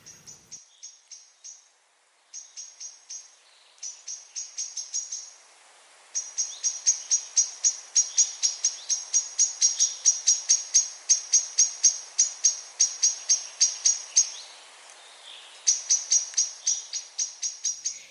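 A blackbird's intense, scolding alarm as it takes flight: loud, rapid, sharp chattering notes delivered in long, urgent bursts with brief pauses, with no other sounds.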